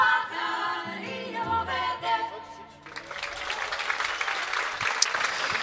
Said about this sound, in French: Vous entendez les applaudissements du public du théâtre Sylvain pour la cinquième édition du festival Caravan Seraï.